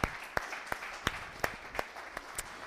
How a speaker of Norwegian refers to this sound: Da sier jeg at vi klapper for de her fantastiske statistene.